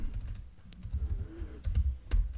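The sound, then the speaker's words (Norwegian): Computer keyboard typing as a note is written down: a handful of sharp, irregular key clicks in short bursts over a low, steady rumble, with no voices. “Jeg legger den i shownotesen. Jeg er tilbake på shownotes, folkens. Jeg skal skrive det ned med en jævla gang.”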